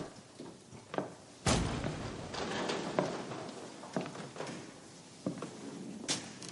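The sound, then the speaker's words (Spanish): A man opens a side door in a courtroom for a witness to enter, with a series of sharp clunks and heavier thuds scattered over several seconds, set against a steady background rustle. No one speaks. “Un hombre abre una puerta lateral.”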